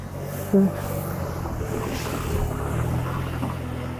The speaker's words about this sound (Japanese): ちょっとね、車と横断歩道とのところなんで、車通りも多いところだとは思います。はい。ご容赦ください。